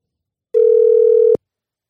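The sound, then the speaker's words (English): A single steady electronic phone ringback tone from an outgoing call, one sustained burst just under a second long, clear, ending with a sharp click. No voices are heard. “little cold call.”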